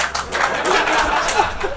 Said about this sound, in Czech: suverénně největší potlesk, co jsme na tom zažili.